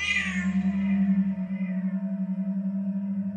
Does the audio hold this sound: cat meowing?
yes